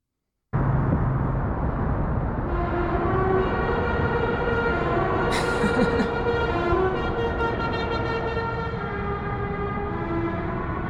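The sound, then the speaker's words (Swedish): A loud, brassy musical truck horn blares a melody of sustained tones, playing a tune with rich harmonic blasts over steady background engine rumble. “Ja, det är någon som har en sån tuta.”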